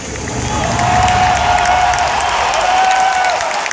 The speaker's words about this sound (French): Il suffit d'entendre les cris dans la salle lors de l'annonce du remake de Final Fantasy VII pour saisir l'enthousiasme.